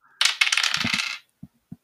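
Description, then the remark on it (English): A rapid, bright clattering of dice tumbling across a desk for about a second, followed by two brief separate clicks as they settle, rolled for an investigation check in a tabletop game. No voices. “Ah, goddamn dice.”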